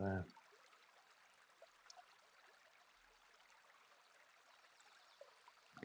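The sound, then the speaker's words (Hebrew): A steady, continuous rush of flowing stream water, like a small brook babbling evenly throughout, used as the anchor of a guided meditation, with a voice briefly heard at the very start and end. “והעוגן שלנו היום יהיה זרימת המים. כמו נחל כזה.”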